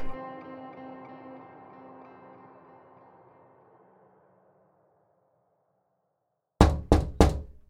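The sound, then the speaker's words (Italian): A fading, droning musical tone trails off into silence, then three loud, sharp, heavy knocks strike an apartment door in quick succession, as police knock in the morning. “La polizia bussa alla porta dell'appartamento di Mayra la mattina successiva.”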